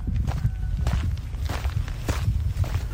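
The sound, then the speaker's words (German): Steady footsteps of someone hiking along an outdoor path past harvested rice fields, a regular rhythm of crunching steps at a walking pace, fairly loud over a low rumbling background, with no talking. “Ich wandere weiter”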